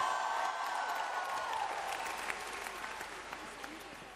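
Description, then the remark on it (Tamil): An audience at a gathering with a pastor claps on the speaker's call, steadily throughout, a dense wash of many hands with sharp individual claps poking out, fairly loud and sustained without pause. “வாங்க பாஸ்டர்னு சொல்றவங்க இப்ப நல்லா கைய தட்டி நீங்க போனாலும் நாங்க எங்க தேசத்தை விட மாட்டோம் பாஸ்டர் புடிச்சுக்கிடுவோம் சொல்றவங்க கைய தட்டு”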